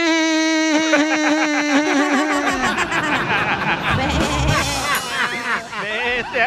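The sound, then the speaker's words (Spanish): A voice imitates a sheep, drawing out a loud, quavering bleat for a couple of seconds, then breaking into a busier stretch of bleating mixed with what sounds like laughter. “llega el niño del DJ y le pregunta al DJ, papá, ¿por qué me dicen oveja en la escuela?”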